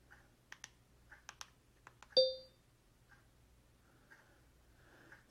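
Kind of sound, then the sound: household object, clock ticking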